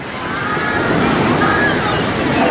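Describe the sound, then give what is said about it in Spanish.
Steady rushing surf of the warm sea at Acapulco, Mexico, fills the scene, a continuous wash of waves breaking with a broad hiss and low rumble, loud and unbroken throughout. “El último día, antes de subir a cambiarme, me metí al fin al mar, a mi mar, a mi tibio cachito de Acapulco.”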